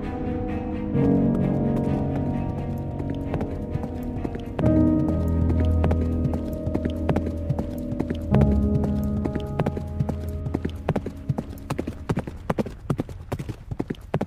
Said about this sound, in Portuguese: Você ouve um som no silêncio absoluto de galope.